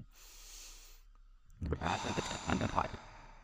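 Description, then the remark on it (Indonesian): A slow, audible inhale through a breathy hiss, a brief pause, then a fuller, louder exhale like a sigh, with no talking: a deep breath taken to begin a guided relaxation at Maghrib time. “Mari kita mulai dengan mengambil napas dalam-dalam.”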